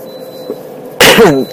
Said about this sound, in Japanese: こうやって咳すると痛いんですよ。